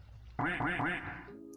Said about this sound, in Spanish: Eso merece un pato. Esperen que les pongo el pato.